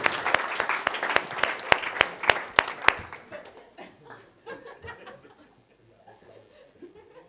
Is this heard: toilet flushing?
no